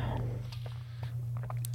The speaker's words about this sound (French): Donc, une petite gorgée d'eau.